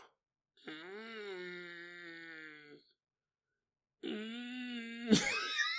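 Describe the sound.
A person makes two drawn-out, strained vocal groans in imitation of a cat growling, each lasting about two seconds with a short pause between, the second ending in a sudden noisy burst.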